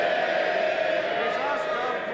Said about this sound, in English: They'll, they'll, not, they'll not be cheering in a moment, Mr Speaker